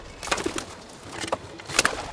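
Pigeons coo softly in a few short, low bursts spread across a couple of seconds, from a dovecote atop a tower of homemade wooden crates at a small urban farm, with light rustling and shuffling and no one talking.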